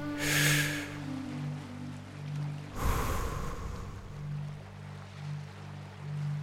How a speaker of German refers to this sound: Und plötzlich schaust du in die Ferne, du stehst an einem Strand, du hörst das Meeresrauschen, du atmest ein